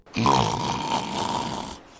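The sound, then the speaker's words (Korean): A single loud, rasping snore drawn out for nearly two seconds, buzzy with a rattling texture, then fading abruptly to quiet. “코골이를 감지하는 인공지능 모션 시스템과 메모리폼 필로우가 잠을 깨우지 않고 부드럽게 고개를 돌려주니까”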